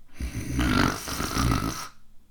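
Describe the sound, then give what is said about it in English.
A person imitates a loud snore, one long rattling, nasal inhale-like rasp lasting under two seconds, heard alone without other talk. “I don't even snore.”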